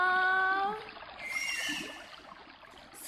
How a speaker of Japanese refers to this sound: イルカってこんな声で鳴くんだね